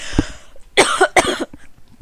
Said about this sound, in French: attends, c'est moi qui vais tousser.